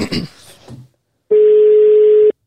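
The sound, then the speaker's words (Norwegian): A brief burst of speech, a pause, then a single steady electronic telephone ringing tone of an outgoing call being placed holds at one pitch for about a second, loud and clear before cutting off. “Jeg ringer det.”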